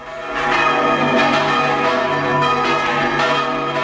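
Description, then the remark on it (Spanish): Church bells in Utrera, Spain, rung by hand in the traditional Spanish manual style, peal loudly and continuously, several bells overlapping in a dense, ringing clang with repeated strikes and long sustained tones, no voices present. “Y esto que oye son las campanas de Utrera y es que la UNESCO ha declarado el toque manual de campanas español Patrimonio Cultural Inmaterial de la Humanidad.”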